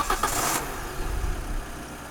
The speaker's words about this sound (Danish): Inden påske lød det sådan her, når jeg startede min bil.